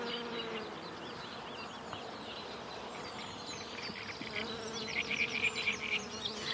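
A dense, steady drone of many honey bees buzzing together, like a busy hive, with brief faint high chirps near the end.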